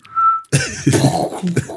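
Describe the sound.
A single steady, high whistle note sounds for about half a second, then cuts off and a loud, rough burst of noise like a cough or harsh exhale takes over.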